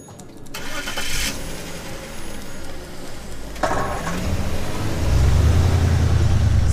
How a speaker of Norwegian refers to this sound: det er politibiler som kjører gjennom gatene akkurat nå